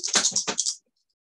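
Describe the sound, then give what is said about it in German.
Three dice are rolled, clattering in a quick burst of rattling clicks on a hard surface, lasting under a second before settling into silence. “Dann würde ich mal würfeln, glaube ich. Wenn ich das alles richtig verstanden habe. Mit drei Würfeln.”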